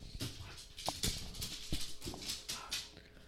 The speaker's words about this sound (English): Sorry, the cat and the dog are fighting.